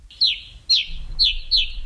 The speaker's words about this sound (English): The gray crowned rosy finch, Leucosticte tephrocotis, today's Talking Birds featured feathered friend.